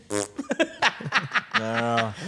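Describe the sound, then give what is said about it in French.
A voice mimics a small fart with its mouth, a buzzy, drawn-out raspberry, mixed in with quick bits of voiced talk and laughter. “En parlant de petits pets”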